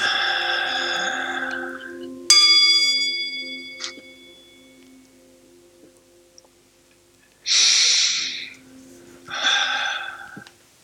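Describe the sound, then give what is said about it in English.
A meditation bell is struck once to end a meditation, ringing clearly and fading slowly over several seconds, framed by slow, audible breaths in and out before and after. “Yeah, that when I rang the bell, did you hear that?”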